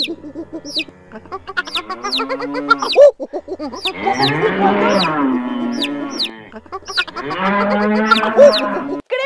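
A cow moos repeatedly in long, drawn-out, loud calls, while quick high-pitched chirps peep steadily over the top throughout. No one speaks.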